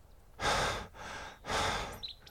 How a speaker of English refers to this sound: As I talk a lot while hiking through the beautiful Tasmanian bush, you can hear me panting. panting means to breathe in and out in a loud, heavy way.